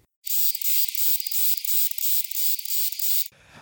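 A dwarf cicada calls, a loud, shrill, high-pitched buzz pulsing in a quick steady rhythm for about three seconds before cutting off abruptly, with no voices.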